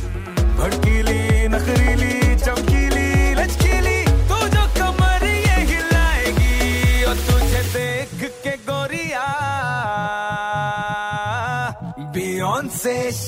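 An upbeat Bollywood dance number from the film Khali Pili plays loud, opening on a thumping, steady beat before sung vocals with sliding, ornamented lines rise over bright synths.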